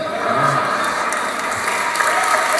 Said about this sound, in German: Langer Applaus.